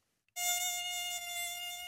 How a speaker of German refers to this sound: Wenn Alexandra Weikert dieses Geräusch hört, dann geht sie auf Mückenjagd.